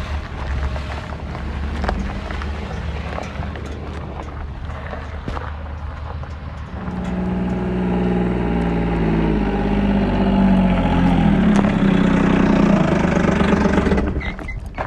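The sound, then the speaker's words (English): A side-by-side utility vehicle's engine rumbles steadily in California cattle country, on a ride out to move cattle, growing louder about halfway through into a sustained, droning hum with rising pitch as it revs, mixed with some wind noise; no talking. “So I, I got to get my side by side. I'll be right back.”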